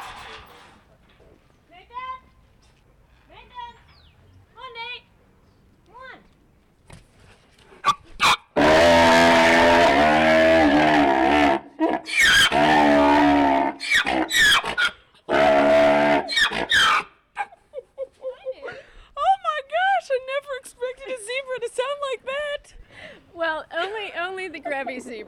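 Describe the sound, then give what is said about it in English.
A Grevy's zebra, the rarest of the three zebra species, braying: soft squeaky calls build into a long stretch of loud, harsh, rasping brays, then trail off into a run of wheezy, hiccuping honks. “There's three different species of zebra in the world, and this this is the Grevy's, and it's the rarest, and they're the only ones that sound like that.”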